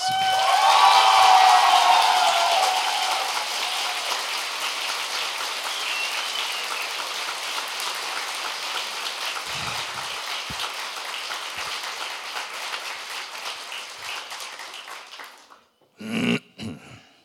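audience applause

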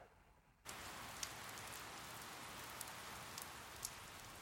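heavy rain pouring down

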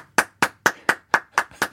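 hand clapping

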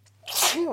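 sneeze

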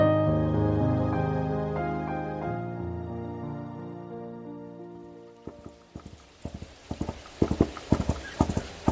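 horse hooves clip-clopping

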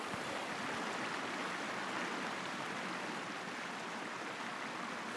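flowing river water

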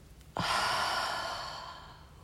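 exhale through the mouth

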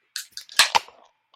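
beer can cracking open

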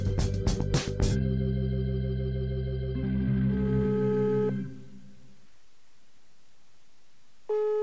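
telephone ringing tone

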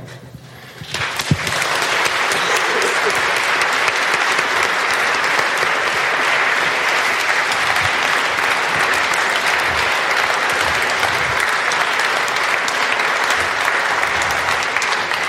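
audience applause

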